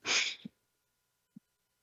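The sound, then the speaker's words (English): A quick, forceful deep breath drawn in through the nose, loud, followed by two faint low thumps and then silence. “Let's take that deep breath in through the nose”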